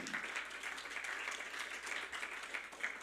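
An audience applauds steadily, many hands clapping in a dense, continuous burst that holds a fairly even loudness throughout, with no voices standing out, giving applause to the Lord.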